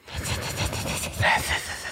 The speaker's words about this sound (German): der Pasimon Podcast zischt durch die Lautsprecher. Warum zischen wir?